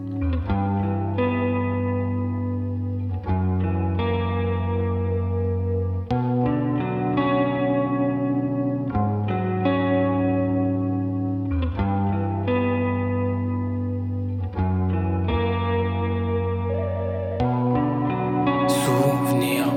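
A loud, steady instrumental passage from a rap track, with layered sustained chords and swelling effects-heavy tones that shift in repeating sections every few seconds, and no voices.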